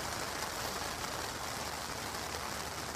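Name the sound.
rain falling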